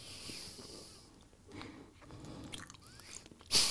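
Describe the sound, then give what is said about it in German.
Quiet chewing of sticky cookies, with soft wet smacking and small irregular crunches, ending in a brief louder rustle. No one speaks. “Kleben deine Kekse.”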